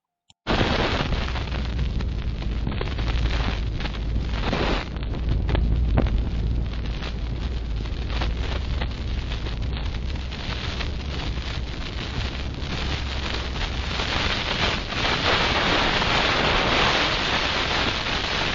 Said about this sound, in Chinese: 因为这边的风切声挺大，所以就可以测试一下它一直外在的风切声进入呃麦克风里面。 现在我们就来听一下外在的那个风切声到底多大。